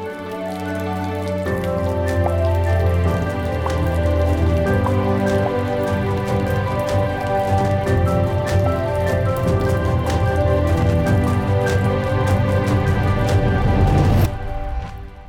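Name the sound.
rain falling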